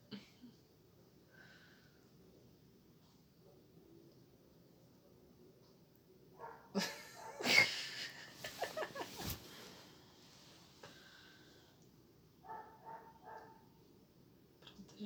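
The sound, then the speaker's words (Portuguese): A dog lets out a short burst of several rapid barks midway through, with a quiet, muffled background before and after. “gente, deixa o cachorro latindo aí.”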